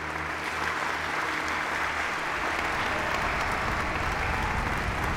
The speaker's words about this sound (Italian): E tutto vortica il suono dell'applauso si fa intenso e scrosciante ti riempie le orecchie